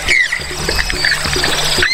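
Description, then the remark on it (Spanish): Outdoor wetland ambience in the wetlands of the Magdalena Medio region of Santander, with short bird chirps and whistles scattered over a soft, steady watery trickle, fairly loud, with no voices. “este es el lenguaje de la naturaleza en los 69 humedales del Magdalena Medio Santandereano.”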